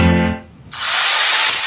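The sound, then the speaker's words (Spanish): Home renovation racket: a brief droning, tonal hum gives way to a loud, steady, harsh hissing rasp like a power sander or grinder, continuous, with no voices. “Este es el ruido de las reformas.”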